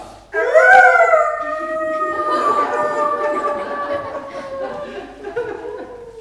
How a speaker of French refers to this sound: C'était le chien qui hurlait à la mort. Il a dû perdre connaissance lui aussi.